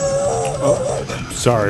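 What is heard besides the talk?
dog barking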